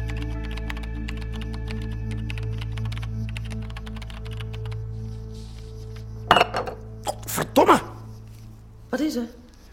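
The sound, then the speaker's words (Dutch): A steady low hum with faint tapping, then a glass of water is knocked over, clattering and clinking sharply several times as it tips, with one last clink near the end. “Ik, uh, ik gooi een glas water om.”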